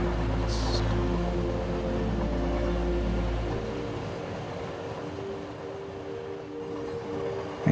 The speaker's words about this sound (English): You hear the subtle rumble of the train.